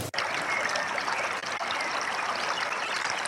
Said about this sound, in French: Ah, là, on est au bord de la rivière, là, quand même.